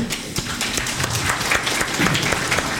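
An audience applauds with steady, dense clapping that fills the whole stretch, many hands overlapping into a continuous crackling wash at a fairly even loudness.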